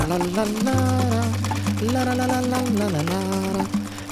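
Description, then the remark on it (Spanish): A sewing machine motor whirs in a steady, continuous low hum that starts just after the beginning and runs to the end, with a voice talking over it. “no tardó en agarrarle la onda al aparato y en cuanto terminaba de desayunar, se quedaba por horas frente a la máquina de coser, experimentando y disfrutando el resto de la jornada.”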